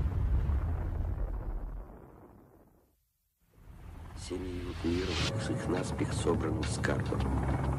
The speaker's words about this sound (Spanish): La potencia de la explosión es similar a la de 10 millones de toneladas de TNT. Es 600 veces más potente que la bomba que destruyó Hiroshima.